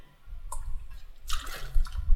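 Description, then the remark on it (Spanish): Someone drinks water: a brief sip, then a louder wet slurp and swallow, followed by soft low thumps. No one speaks. “Tomen mucha agua.”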